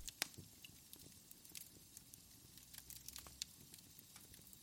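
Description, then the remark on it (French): A fireplace crackles softly, with irregular sharp pops and snaps over a low, steady rumble. It is quiet, with no voices. “Hop, petite ambiance feu de cheminée.”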